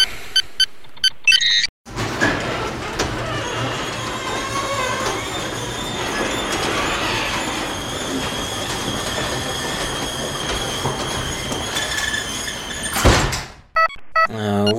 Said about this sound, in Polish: Pozwólcie, że otworzę komnatę. Tutaj w studio mam takie wielkie drzwi, specjalne przełączniki